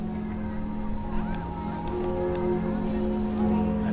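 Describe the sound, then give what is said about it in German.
The church bells of Notre Dame in Paris ring continuously, their overlapping tones blending into a loud, sustained wash with occasional fresh strikes, over a busy background murmur. “Aber hast auch mal was mit Kirchenglocken oder so?”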